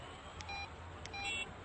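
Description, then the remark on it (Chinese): A mobile phone's text message alert chimes twice during a meal in a small restaurant, each a short, bright electronic beep pattern with a fairly high pitch, faint over a low background hum, with no talking. “正吃着，他的手机突然响了，又是一条短消息”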